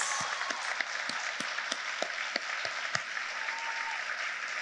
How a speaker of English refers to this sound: Uh, another extraordinary round of applause for our …, our Jingle Dress dancers.